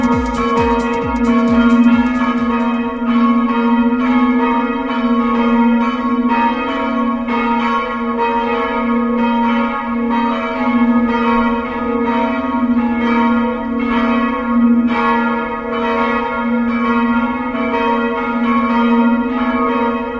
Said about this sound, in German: Wenn Sie diese Glocken endlich auf Platz 1 unserer Hitparade So schön klingt unsere Heimat hören wollen